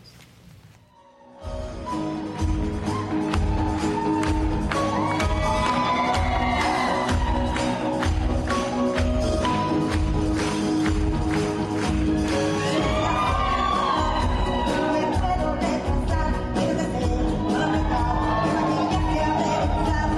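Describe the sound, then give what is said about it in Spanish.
A large audience in Mexico gives four musical performers a minute-and-a-half standing ovation. After a brief quiet start, it cheers and applauds loudly and continuously, with whoops and shouts rising over a steady roar of clapping. “Estoy pidiendo otro porque hubo, y e, ese es el que quería poner, una ovación de pie de minuto y medio a ellas cuatro.”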